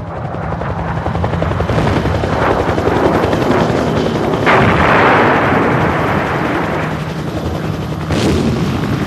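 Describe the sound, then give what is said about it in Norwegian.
Helicopters clatter overhead in a dense, continuous rotor chop, loud, with sharp bursts and booms of fighter jets breaking the sound barrier mixed into the din; no voices. “så er det helikoptre som klaprer rundt over der.”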